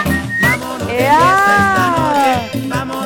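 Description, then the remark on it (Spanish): A person whistles a smooth, sliding tune that rises and falls, fairly loud, with voices murmuring and talking underneath throughout. “Ese chiflido.”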